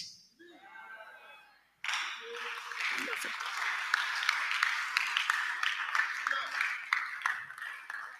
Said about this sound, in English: Those who are clapping, I can see that now.